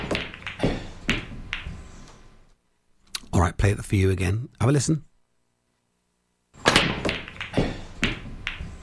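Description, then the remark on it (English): A burst of sharp, hard clacks as pool balls scatter and knock together on a pool table after a break, loud, heard alone between stretches of a man talking. “It's a pool break, pool table break. The balls.”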